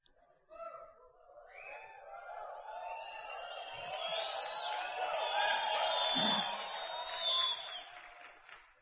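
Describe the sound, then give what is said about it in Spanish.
A crowd shouts and cheers loudly, many voices blending into a sustained roar that swells over several seconds, with whoops and scattered applause rising and falling near the end. “Ustedes ven a José Bobadilla y cómo gritan.”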